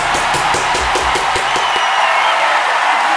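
An audience applauds loudly, a dense wash of clapping with rhythmic pulses in the first seconds, then steady crowd noise with faint cheers.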